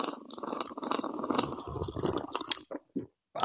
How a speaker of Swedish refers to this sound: Vi tar en kaffe. Skål mannen. Skål gubben. Och nu kommer en extra ASMR-sipp för er som älskar och hatar.